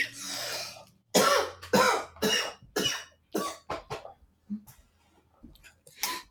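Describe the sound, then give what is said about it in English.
A loud fit of coughing from a sick person during a recorded interview: harsh bursts come one after another in a rapid, uneven series, with short gaps and a final cough after a brief pause. No one speaks. “I can cut out the coughing uh, in, in post production, so don't worry.”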